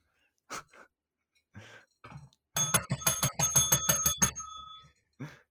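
A bell rings in a quick burst of about a dozen bright, metallic dings over roughly two seconds, fairly loud, with a few soft breaths before and after.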